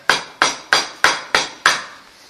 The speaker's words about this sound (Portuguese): 5 da manhã, quem está batendo na minha porta?